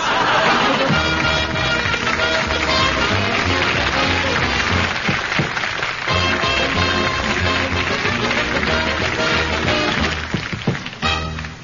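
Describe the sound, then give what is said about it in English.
A band plays loud, full music throughout, with a steady pulsing bass line under busy melodic parts, continuous with no voices, briefly thinning near the end. “Did you hear that lifelike music?”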